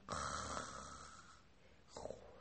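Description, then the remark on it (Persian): A voice imitates snoring: one long, rasping inhaled snore followed by a shorter second snore, fairly loud, with no other talk. “اما بچه ها چه اتفاقی افتاد وقتی که اون دوتا نشستن منتظر روبا انقدر غذا خورده بودن و سنگین شده بودن که خوابشون برد صدای”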